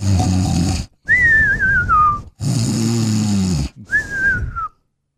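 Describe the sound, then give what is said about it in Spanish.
A voice imitates chickens snoring in a farm at night: two rounds of raspy, low snore-like inhales, each followed by a warbling whistled exhale that glides downward, fairly loud with no other talking. “Abre la puerta y y las gallinas, pues ahí roncando, güey.”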